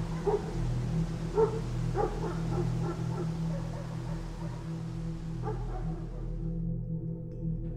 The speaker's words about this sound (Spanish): Aquel silencio acogedor fue sustituido por el incómodo ladrido de lo que parecía una jauría de perros en la distancia, los cuales poco a poco fueron escuchándose más cerca como si en cualquier momento fueran a llegar donde me encontraba.